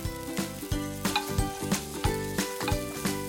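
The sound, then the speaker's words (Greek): Frozen peas sizzle and crackle in a hot cooking pot as they begin to steam, a steady hiss with soft rhythmic pulses as they are stirred with a ladle. No one speaks. “Ο Αρακά, όπω είναι κατεψυγμένο, έχει μπει στην κατσαρόλα και θα δείτε έτσι να αρχίζει να αχνίζει.”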